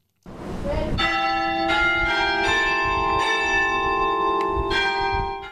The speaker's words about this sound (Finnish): Reikävikin tunnetuimman maamerkin Halmgrimskyrkkanin kellot lyövät illan rauhaa Islannin lyhyen, mutta säältään vaihtelevaan kesään.